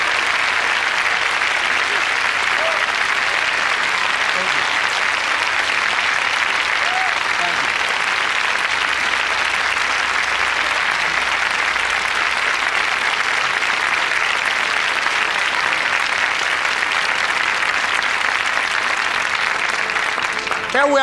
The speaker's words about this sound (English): Let's give Mrs. Rosa Parks a round of applause, if you please.